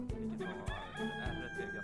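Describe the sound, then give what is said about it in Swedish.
A rooster crows in a long, harmonically rich cock-a-doodle-doo, heard outdoors far out in the countryside with a faint background hum and no one speaking. “Därför att jag är långt ut på landsbygden och för att jag också gett mig fan på att försöka spela in den där tuppen.”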